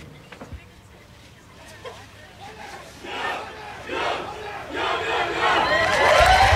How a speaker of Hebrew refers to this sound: והנה עוד מעט אה, מגיע רגע השיא הזה, שבו בעצם אה, זורקים את הכובעים. כן. הקצינים החדשים של זרוע הים יסיימו את קורס חובלים במנהג שהפך למסורת. קריאת עלי ים.